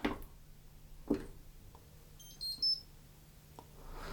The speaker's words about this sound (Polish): A zatem e, tutaj mamy pierwszy przycisk, to jest on-off, który w ogóle pozwala na to, żeby uruchomić pralkę i ona też swoje uruchamianie e, jakby sygnalizuje dźwiękiem, co zaraz pokażę.